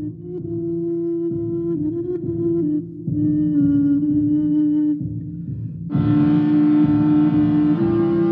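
A car engine drones steadily with a strong low rumble, its pitch shifting slightly as it runs, then roars louder and brighter near the end as it revs up; no voices.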